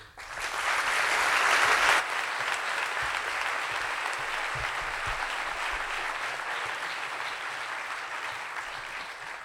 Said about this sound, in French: Merci d'applaudir très fort Marie Trébert.